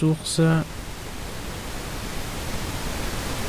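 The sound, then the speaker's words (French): A brief voice at the start gives way to loud, steady pink noise, a dense rushing hiss weighted toward the low end that continues unchanged to the end. “Pour le bruit rose, j'entends.”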